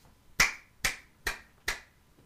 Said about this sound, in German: Allein dafür mal kurz Applaus.